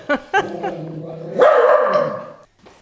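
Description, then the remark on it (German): A dog barks twice in quick sharp yips at another dog, then lets out a long, rising, strained growl-bark that holds for about a second before trailing off, fairly loud. “Knurrt er eigentlich alle Hunde an?”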